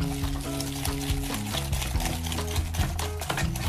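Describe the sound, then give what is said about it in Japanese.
Rapid, repetitive scraping of a whisk against a bowl, mixing softened butter and sugar in a steady rhythm, with background music playing underneath throughout. “じゃあちょっと柔らかくなったところにお砂糖を入れますちょっと待ってねお砂糖入れるところはママがしますうん、このくらい里我が家ではとっても少なめに作ってますそれを泡立て器で混ぜます”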